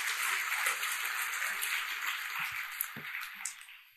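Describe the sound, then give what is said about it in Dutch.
Sustained applause from a large crowd applauding God, a dense steady wash of many hands clapping at once that holds for several seconds before slowly thinning out toward the end. “Geef God het grootste applaus wat je hem gegeven hebt in de naam van de Heer Jezus Christus.”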